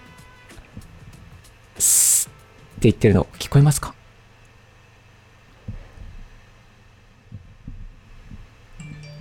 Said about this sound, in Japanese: この原因をただ大きくしていきますね。そうすると、どんどんどんどん音拾いますよね。で、ここまで行くと、今、パソコンのファンが